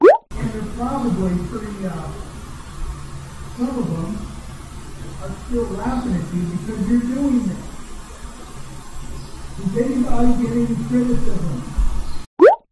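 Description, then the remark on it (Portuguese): Muffled voices come through a ceiling from the upstairs neighbor's apartment, either a radio playing or him talking on the phone, the words unintelligible. Steady and continuous over a low background hum, with a few louder swells. “Eu não consegui entender se isso é um barulho de rádio ou se é ele conversando no telefone.”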